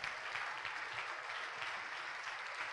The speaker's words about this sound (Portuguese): Sai do teu lugar e vem aqui para frente e vamos aplaudir grandemente ao nome de Jesus.